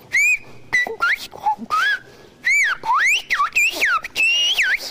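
Loud whistled speech in Occitan: a human whistle gliding and swooping in rapid, syllable-like phrases, mimicking the rhythm and melody of spoken words, with short pauses between bursts and no voice. The message asks someone to stop at the grocery for a tin of sardines and a baguette.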